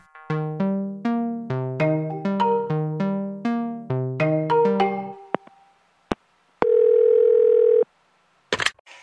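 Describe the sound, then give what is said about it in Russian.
A bright, plucked electronic melody plays for about five seconds, then after a couple of clicks a single steady outgoing-call ringing tone sounds clearly, followed by a brief click. No one speaks. “Надо позвонить человеку, который в этом разбирается. Давай звонить.”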